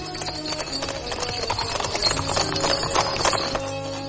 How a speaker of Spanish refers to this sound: Un coche de caballo se acerca por la calle.